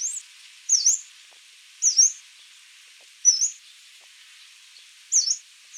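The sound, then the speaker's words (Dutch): A yellow-browed warbler gives thin, high-pitched, slurred calls, five of them spaced irregularly about a second or more apart, each brief and bright against a faint hiss, with no voices. “En een heel vet geluidje zo.”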